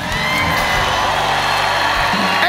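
A large audience at a Christian worship service shouts and cheers loudly and continuously after being urged to shout loud enough to be heard outside, a dense wall of overlapping voices, whoops and yells without a break.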